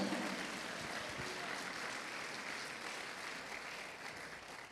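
An audience claps for the Lord during a sermon, a steady, dense wash of applause that holds at an even level for several seconds, with no voices standing out.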